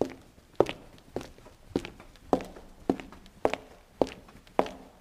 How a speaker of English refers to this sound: Samantha Stones walks into the building with footsteps.